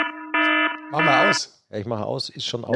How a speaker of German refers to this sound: Oh, das ist der Wecker. Das ist der Wecker.